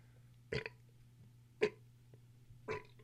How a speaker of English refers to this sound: Sorry. It's mostly just burpy foam burps, so I apologize for that. It's super gross. I should be muting myself.